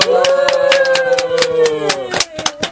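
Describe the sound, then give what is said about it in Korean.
A quick run of about a dozen sharp hand claps at a steady, brisk rhythm, with a sustained vocal tone or cheer underneath the first two seconds, applauding to congratulate someone on entering middle school. “박수.”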